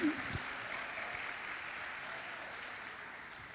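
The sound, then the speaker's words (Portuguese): A crowd applauds Jesus Christ steadily, a dense wash of many hands clapping at once that stays fairly even and moderately loud throughout, with no voices standing out above it. “Vamos aplaudi-lo.”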